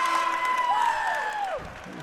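The Exeter student section, the Blue Crew, roars with sustained cheering at a game for about two seconds, shrill whistles and whoops gliding up and down over a dense, steady wash of crowd noise and clapping.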